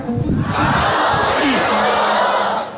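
A large crowd shouts and roars together in response to a speaker's call for their voices, in one loud, sustained burst of voices that holds steady for the whole moment, with individual yells rising out of the dense din.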